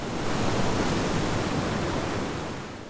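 Steady, full-bodied roar of sea surf washing in without a break, loud, easing slightly toward the end, with no voices or other sounds.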